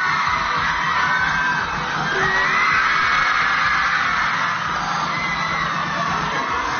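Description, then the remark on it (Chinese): A crowd of fans screams continuously at a fan event in Shanghai with the actor Junbin, a dense, high-pitched wall of shrieks and cheering that stays loud and steady throughout, with a few sharper squeals rising above it. “听听现场这嫉妒的尖叫声，也是没谁了。”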